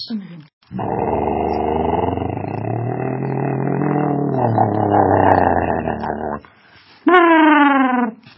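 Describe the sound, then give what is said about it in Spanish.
A voice imitates a Spanish bus: a long, steady rumbling engine drone for several seconds, then a brief pause and a loud, nasal horn-like blare, all performed vocally. “Entonces, imaginé una obra, y eso es, en donde imito los sonidos de un autobús, el claxon, el motor, las puertas.”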